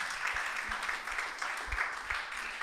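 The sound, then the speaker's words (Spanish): An audience at a Christian service claps steadily in applause for the men, a dense, reverberant wash of many hands applauding together, with a few low thumps mixed in and no clear talking. “Apláudale también a los varones.”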